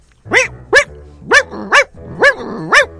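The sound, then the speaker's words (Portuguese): A dog barks six times in quick pairs over a phone line, each bark sharp and loud, with short pauses between the pairs and a low hum underneath; no one speaks. “Ouviu aí, doido? O cachorro tá bem.”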